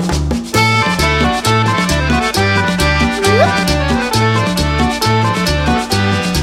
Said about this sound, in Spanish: Y ahora viene el acordeón.